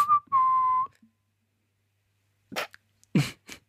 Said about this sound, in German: Es, es, wurde nur gesagt, dass ich schräg pfeife, obwohl ich einmal, ich war der festen Überzeugung, ich kann ultra gut pfeifen.